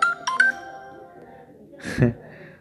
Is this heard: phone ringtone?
yes